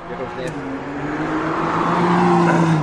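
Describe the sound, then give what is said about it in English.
A car engine drones steadily as the car drives a lap on a track, its pitch slowly climbing as it gains speed, with road and wind noise growing louder toward the end. “Like, oh, I'm going to be driving around really slow, but like you can hear the.”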